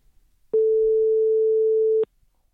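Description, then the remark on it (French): One steady telephone ringback tone, a single even beep lasting about a second and a half, clear and alone against near silence, as when an outgoing call from the radio station Radio Monobloc to a guest is ringing. “Alors, euh, on l'appelle tout de suite pour en parler avec lui.”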